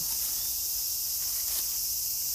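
A dense, steady chorus of cicadas buzzing shrilly and continuously, filling the air at an even loudness with no pauses and no voices.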